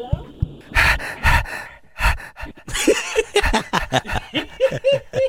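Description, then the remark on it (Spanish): A person imitates a dog during a phone call, panting in quick, rhythmic, huffing breaths that grow faster and more voiced toward the end, with no other talking. “…, hazle como perro.”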